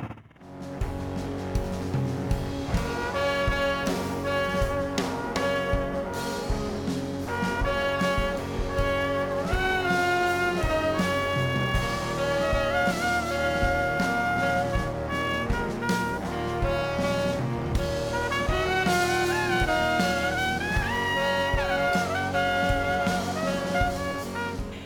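A music track plays continuously at a steady, full level, with dense layered instruments and sustained, shifting melodic tones over a low, busy accompaniment. No one speaks.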